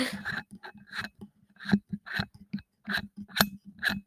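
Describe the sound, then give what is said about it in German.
A part being unscrewed from a microphone, producing loud, irregular bursts of scraping and metallic clicking, with brief pauses between twists and no talking. “Wartet, ich, schreib, ich schraube das mal hier kurz ab.”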